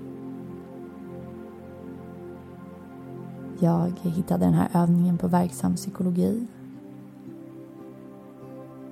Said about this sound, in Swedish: Regnet smattrar utanför fönstret.